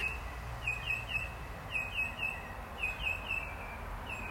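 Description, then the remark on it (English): Birds chirp in short, bright bursts at 6:31 a.m. on a wet, rainy winter morning in Australia, several quick tweets repeating in clusters over a steady low rumble of traffic out back, fairly faint and outdoors with no one talking. “Alrighty, let's take a moment and listen to the birds.”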